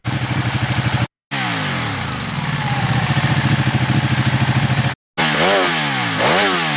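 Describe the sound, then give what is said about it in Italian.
A motorcycle with its stock (standard) exhaust idles with a steady, low pulsing throb, briefly cutting out twice, then blips and revs with rising and falling pitch near the end. No one speaks. “Sì, adesso volevo t- trovare un suono eh, con lo scarico normale per fare il confronto.”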